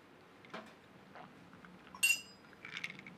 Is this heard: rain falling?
no